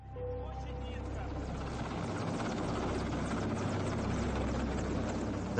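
A government helicopter thunders overhead as it descends over a pile of flowers at a bridge in Moscow. Its rotor thumps in a rapid, steady chop beneath a loud roaring engine wash that holds constant for the full few seconds.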